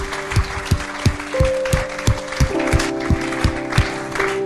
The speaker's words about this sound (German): Lass uns Jesus einen fetten Applaus geben und lass uns den Leuten einen fetten Applaus geben, die diese Entscheidung heute getroffen haben.